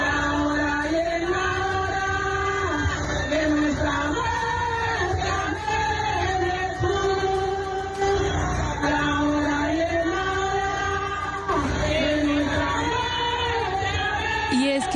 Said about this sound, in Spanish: con estos cantos que vamos a escuchar a continuación, los habitantes de Vigía del Fuerte en el atrato antioqueño reciben hasta ahora los restos mortales de las 79 víctimas de la masacre en Bojayá ocurrida en mayo de 2002.